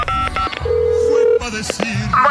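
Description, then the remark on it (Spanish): A telephone being dialed: a few quick tone beeps, then a steady, fairly loud ringing tone lasting under a second, with busy background chatter and noise around it. “Contéstame o llámame, por favor a ver, déjale marco a esta, hombre.”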